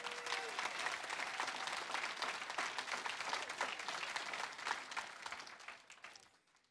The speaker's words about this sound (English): Let's give the single parents a hand clap.